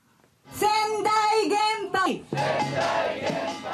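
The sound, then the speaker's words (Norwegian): A few hundred protesters in front of the Sendai nuclear power plant in southern Japan chant slogans against restarting nuclear power, loudly in unison, with rhythmic, drawn-out shouted phrases followed by a dense burst of many voices yelling together, sustained. “De roper slagord og bærer plakater med krav om at myndighetene gjør om sin beslutning om å gjenoppta produksjonen.”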